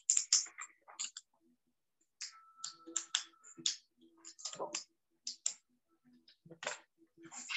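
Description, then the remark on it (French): Sticky tape pressed and smoothed onto a piece of paper, an irregular series of crisp crackles, peels and taps with short pauses between bursts. “On prend du scotch encore et on met sur le bout de papier et à l'autre.”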